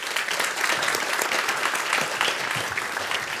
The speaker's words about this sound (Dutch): Dames en heren, mag ik een warm applaus